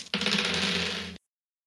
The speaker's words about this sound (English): I'm gonna roll some dice here.